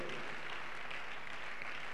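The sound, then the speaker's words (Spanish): An audience applauds together for the Lord during a church service, a dense, steady wash of many hands clapping that holds evenly throughout, fairly soft, with no clear voices on top. “Un aplauso grande para el Señor.”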